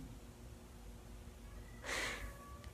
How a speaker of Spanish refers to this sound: Escuchan al gatito, hay un gatito que nos visita de vez en cuando, ahí está pidiendo entrar, está haciendo en la puerta.